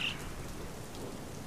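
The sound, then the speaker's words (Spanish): Steady rain falls continuously, a dense even hiss of drops spread across the sound with no pauses or voices, moderately loud. “La encontró en lo alto de una montaña y le dijo, ¡Oh! ¡Lluvia!”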